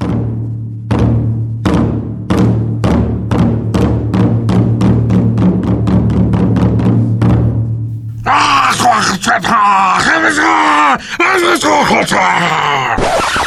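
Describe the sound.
A human voice imitates a prehistoric wolf approaching the first little pig's bush in the night, in a reading of the book En la prehistoria, giving a loud, raspy growl and snarl after a low drone punctuated by steady, regular beats. The growling runs several seconds with gravelly, uneven pitch.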